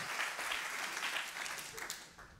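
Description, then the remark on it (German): An audience claps steadily in a dense wash of applause that holds for a couple of seconds, then begins to thin out toward the end. “genau, lasst ihn uns mal einen riesen Applaus geben.”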